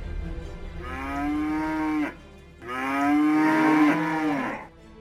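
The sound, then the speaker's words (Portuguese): Cows moo, two long, loud, drawn-out calls separated by a brief pause, over a low rumbling background with no talking, as a crowd of cows comes in through a door that opened by itself. “Ele estava atordoado com o spray, mas a gente não conseguia abrir a porta de jeito nenhum, até que ela abriu sozinha e começou a entrar um monte de vaca.”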